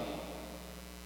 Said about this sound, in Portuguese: Não precisa baixar o som, não, porque o, chiado é independente do volume.